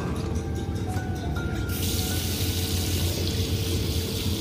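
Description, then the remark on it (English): A tap runs steadily into a sink, water splashing and gurgling in a continuous rush that brightens and fills out partway through, as someone splashes cold water on their face, with no voices. “I splashed cold water on my face, and as I looked in the mirror above the sink, I swore there was someone standing behind me.”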